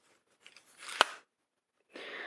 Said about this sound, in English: So when you pull both ends away from, well, up and over, away from the middle, um, you end up with a longer keyboard and it makes this noise. And then to fold it up again, it makes this noise.